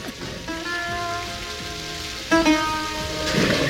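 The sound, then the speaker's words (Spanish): Steady rain pours throughout a film scene, a constant hiss under sustained tonal notes that shift twice. A brief louder surge comes partway through. No one speaks. “Ella ha entrado y, bajo la lluvia ha cogido y ha preguntado por, por, la cabra.”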